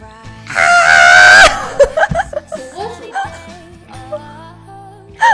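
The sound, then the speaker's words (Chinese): A person imitates a screaming marmot with one loud, piercing, sustained shriek lasting about a second, then people break into laughter and chatter. “模仿一种小动物，你有看过那个那个很大声的那个？”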